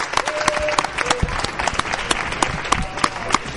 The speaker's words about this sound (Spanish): Pues gracias y un fuerte aplauso para el Instituto. Muchas gracias.